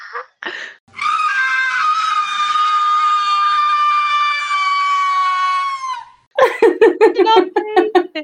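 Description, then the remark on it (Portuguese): A loud, drawn-out scream of the Grinch from a Vine clip holds steady for about five seconds, piercing, after a couple of short vocal yelps. It ends in a burst of choppy, excited vocal sounds. “Insira aqui o Grinch berrando naquele Vine.”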